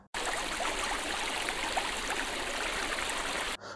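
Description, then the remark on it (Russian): Steady rushing of the huge Neva River's flowing water, a dense continuous wash of babbling and splashing that holds at an even, fairly loud level from start to finish with no voices. “Но вдруг на его пути возникла огромная река Нева,”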